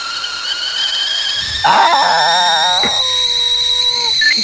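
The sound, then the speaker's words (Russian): A kettle whistles with a steady, shrill high tone. Partway through, a louder warbling, wavering whistle joins in and then settles into a sustained pitch. “Это звук чайника со свистком.”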